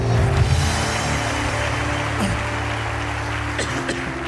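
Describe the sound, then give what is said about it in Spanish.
A crowd applauds God loudly and steadily for several seconds, a dense wash of clapping, with a faint low hum of music underneath. “Vamos, alguien que le dé un aplauso fuerte a Dios acá.”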